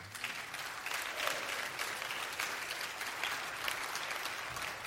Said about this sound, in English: She has worked hard all week. That's where you can clap your hands. It's okay.